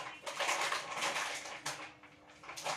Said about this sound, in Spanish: Ya está la leche, vamos a abrirla por acá. Todos los ruidos posibles. Sí, sí, ahí es la leche